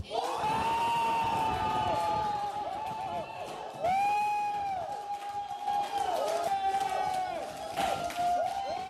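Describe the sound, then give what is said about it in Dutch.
A large crowd cheers and whoops loudly and continuously at a D66 election victory party, with high shouting voices rising and falling over a dense roar of celebration, swelling again near the end. “En zo klinkt het dan bij D66 als de overwinning binnen is.”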